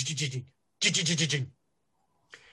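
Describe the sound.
A voice mimics a house shaking as in an earthquake, at around nine o'clock, with two loud, pulsing rattly bursts separated by a short pause, followed by a brief faint scratchy noise.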